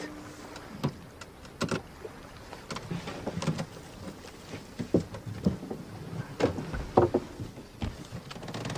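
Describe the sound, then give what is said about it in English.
A boat rocking on water, its hull giving off repeated creaks and hollow knocks at an uneven pace, over a low steady background murmur. No one speaks. “Because I'm on this boat, my final parable should be about fishing, yes?”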